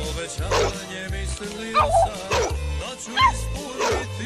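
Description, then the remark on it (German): A truffle-hunting dog barks repeatedly, five or six sharp, fairly loud barks spaced about half a second to a second apart, over a busy background with a steady low thumping. “Diese Hunde, das sind die meisten Labrador-Hunde oder einige noch Jägerhunde.”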